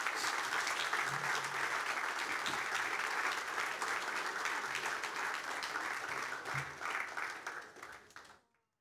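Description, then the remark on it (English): Sustained audience applause for the new captains of the A-League men's and women's teams, Ryan Kitto and Izzy Hodgson, a dense steady wash of many hands clapping at full loudness for about eight seconds before quickly fading to silence. “Can you please put your hands together for them both?”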